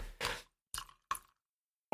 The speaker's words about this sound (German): Ich bin ja die ganze Zeit am Getränke einschenken, falls man es hört. Ja, man hört's, man hört's.